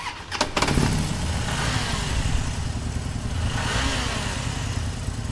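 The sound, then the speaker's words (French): Two motorcycle engines rumble loudly and steadily, a deep throaty idle swelling into revs partway through, with a sharp clatter as they fire up at the start, ready to race at the referee's signal. “Les moteurs rondissent. Les deux motos sont prêtes à fuser euh, au signe de l'arbitre qui lancera la course.”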